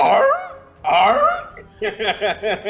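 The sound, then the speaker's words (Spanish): A voice imitates the call of Obi-Wan's dragon-like lizard mount: two drawn-out, warbling squawks, then a quick run of about six yelping chirps, loud with no other sounds. “Obi-Wan, pues ya, eh, renta o compra, no sé, honestamente, pero sale con su, con su dragoncito lagarto, ahí haciendo el ruidito de...”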